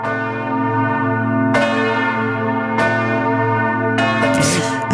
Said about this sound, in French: Oui, mais vous allez voir, pas n'importe lesquelles. Ah. Euh, en fait, ce sont les 32 cloches de 11 clochers nantais. Voilà. Et ça, c'est une création de Dominique Blais.